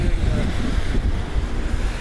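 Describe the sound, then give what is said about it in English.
Loud, blustery wind of about 20 to 25 miles an hour, gusting up to 38, buffets the microphone while a bicycle is lifted by its top tube, a continuous low roar rumbling and surging in gusts throughout with no clear pause. “consistently sort of 20, 25 mile an hour winds with gusts of up to 38 miles an hour”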